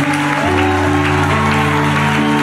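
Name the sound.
audience applause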